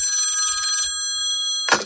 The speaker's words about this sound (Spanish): Era un frío 7 de febrero de 1981. Esa mañana sonó el teléfono.